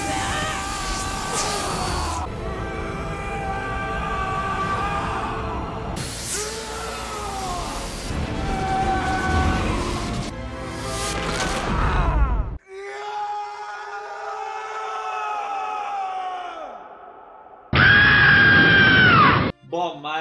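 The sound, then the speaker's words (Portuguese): A woman, as Lara Croft in the film Tomb Raider, screams and groans repeatedly in loud, strained, effortful bursts, with a rumbling action-scene backdrop and a final sharp cry near the end. “Aquela Lara Croft que grita o tempo todo.”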